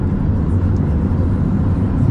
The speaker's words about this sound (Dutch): En op het moment dat ik dit vertel, rijd ik op de brug helemaal omhoog, het hoogste punt op de Christoffelna van het eiland.